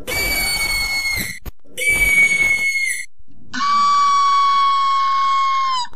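Three loud, shrill screeches with brief gaps between them, the first two harsh and whistling, the last a longer, steadier wail at a slightly lower pitch, with no talking: experts' recreation of the infamous scream of the Screecher, a creature eyewitnesses report in the basin.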